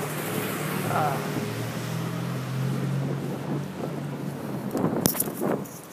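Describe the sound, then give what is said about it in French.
Steady outdoor wind rushes and buffets the microphone over a low droning hum, with a few brief louder gusts or bumps near the end. “Ok, c'est le bordel. Il y a du bruit, il y a du vent.”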